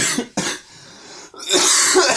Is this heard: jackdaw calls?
no